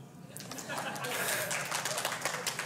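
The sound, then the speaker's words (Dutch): A small group claps their hands, starting after a brief pause and continuing as a quick, uneven patter of claps, with faint voices murmuring underneath. “Ja, klap maar.”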